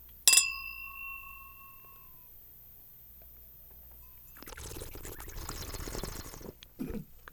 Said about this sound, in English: Again, pulling the, the wine over uh, with some air over your tongue to get a little bit of air in, which spreads uh, the aroma and the flavors I in- around.